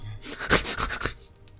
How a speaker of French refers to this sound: Les volets sont, enfin, les rideaux sont fermés, mais t'entends quelque chose qui gratte à la porte.